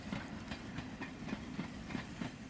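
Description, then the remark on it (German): A train slowly pulls away from a station, its wheels clacking over rail joints in a steady, unhurried rhythm beneath a low rumble and faint hiss. “Langsam setzte sich der Zug wieder in Bewegung.”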